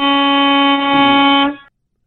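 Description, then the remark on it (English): A truck's air horn blares in one long, loud, steady honk lasting about a second and a half, then cuts off with a short fading tail. No one speaks. “Okay, just to be specific, that's not a train horn. I appreciate the truckers out there.”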